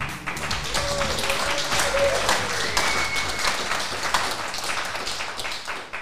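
Steady audience applause, a dense crackle of many hands clapping at even loudness throughout, with a faint whistle-like tone rising briefly in the middle.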